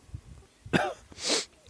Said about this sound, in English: no, not quite as bad, but there is the pepper there still. Yeah, still enough to kind of just you know light cough on my it's part.